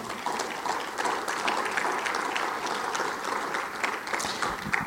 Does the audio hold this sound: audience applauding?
yes